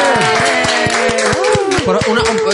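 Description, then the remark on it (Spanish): Lively clapping from a small group mixed with loud, sing-song voices cheering and whooping over it, filling the whole short stretch. “Un aplauso para estos dos grupetes, por favor.”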